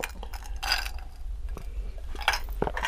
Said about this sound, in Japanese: 明日公開の「バッドシティ」を祝して、うん、ちょっと私の地元熊本の高橋酒造の米焼酎、うん、白滝白で今週も乾杯しましょうお乾杯、はい、乾杯おこれ、ね、おいい音いい音